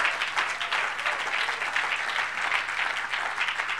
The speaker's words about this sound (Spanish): Démosle un aplauso al Señor esta noche. Gloria a Dios.